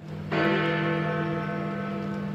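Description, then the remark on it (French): A single heavy bell of Big Ben strikes once and rings out on the day of the Queen's funeral, its deep resonant tone and layered overtones sustaining and slowly fading. No voices are heard. “les cloches de Big Ben retentiront.”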